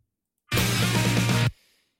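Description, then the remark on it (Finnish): A one-second snippet of a rock song played for a song-guessing quiz: a loud, dense burst with full-band distortion and steady low bass, then it cuts off abruptly into near silence with a faint fading tail. “Sekunnin siivu kuulostaa tältä.”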